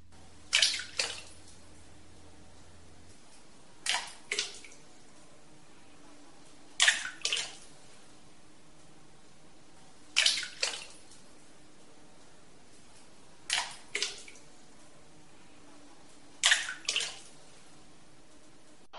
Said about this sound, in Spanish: Primero vamos a escuchar una gota que va llenando poquito a poquito lo que llamamos un gurs, o sea, una especie de volcancito que se llena de agua y que inmediatamente va seguido del fragor del propio río de Fuente Molinos.